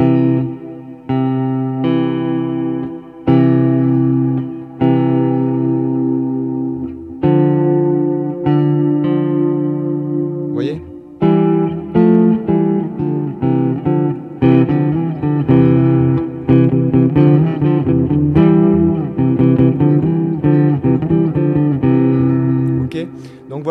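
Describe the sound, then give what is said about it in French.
Electric guitar plays two notes at once, letting the first pairs ring out in long sustained tones before moving into a quicker run of double stops, loud and steady throughout with no voice. “Vous fermez les yeux, vous faites les deux notes simultanées, vous, vous essayez dans votre tête d'entendre ça.”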